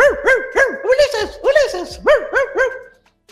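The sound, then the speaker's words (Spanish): A human voice imitates Argos, the dog of Odysseus, letting out a quick, rhythmic series of about ten yappy barks, fairly loud, with no other talking. “Nadie lo reconoce salvo su perro, Argos, que lo huele y dice,”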